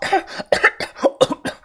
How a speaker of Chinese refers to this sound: 尘土弥漫四起，几块碎石飞到了我的脚下。小轩被灰尘呛得不断的咳嗽。